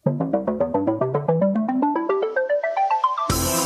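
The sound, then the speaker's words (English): A short electronic jingle: a quick run of bright, evenly spaced notes climbing steadily in pitch for about three seconds, then ending abruptly in a loud, hissing crash. No voices. “And here is the jingle.”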